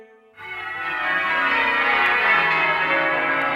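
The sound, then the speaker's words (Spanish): Church bells peal in celebration, a dense wash of overlapping ringing tones that swells in after a brief quiet moment and stays loud and sustained, with no voices. “Y al acabar el acto sonaron las campanas para mostrar regocijo público por la declaración de mayoría de edad de la reina.”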